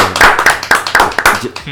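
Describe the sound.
Brief applause: a quick, steady run of about seven sharp claps, fairly loud, with some voices murmuring underneath.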